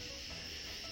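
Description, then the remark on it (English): Dense chorus of crickets chirping continuously at night, heard from a back deck under a half moon, a steady high-pitched trill filling the whole clip, fairly loud with no voices. “Crickets are just blasting away.”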